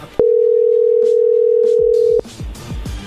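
A single steady telephone ringing tone, a low-pitched electronic hum that holds loud and unbroken for about two seconds, then cuts off into a few soft clicks and rustling.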